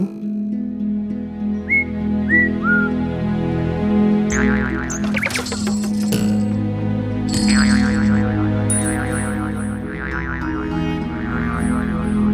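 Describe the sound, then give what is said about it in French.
A wound-up mechanical bird sings the same tinkling tune: a few quick rising whistled chirps, then bright chiming flourishes over steady humming tones, with no voices. “Tous les jours, on le remontait et tous les jours, il chantait le même air, encore et encore, matin et soir, sans changer une seule note.”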